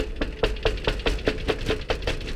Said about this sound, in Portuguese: M se posiciona na porta de uma casa e bate.